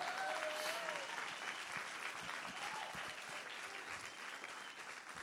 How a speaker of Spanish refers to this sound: Alguien den un aplauso fuerte a Jesús, vamos.